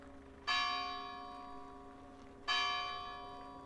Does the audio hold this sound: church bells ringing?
yes